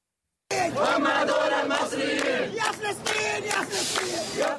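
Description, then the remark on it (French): A crowd of volunteers chants slogans for Palestine in unison at the Rafah border crossing, many voices rising and falling together in a loud, steady rhythm that continues throughout the few seconds. “Des bénévoles qui scandent des slogans pour la Palestine.”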